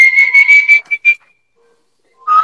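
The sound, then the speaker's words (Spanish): An eerie, ghostly whistle sound effect for the whistle of El Silbón, a legend of the Venezuelan plains: a sustained high whistled tone followed by two short notes, a second of silence, then a lower whistle starting up, loud, with no voices. “Pero la leyenda del silbón es una leyenda muy famosa, inclusive tiene un silbido.”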